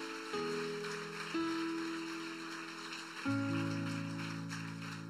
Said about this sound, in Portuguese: Dê uma grande salva de palmas ao Senhor.